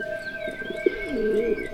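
A turtle dove coos softly, a low, purring, rolling call that wavers up and down, with a faint steady hum underneath.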